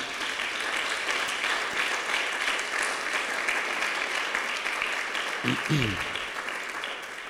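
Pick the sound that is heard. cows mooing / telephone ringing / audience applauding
audience applauding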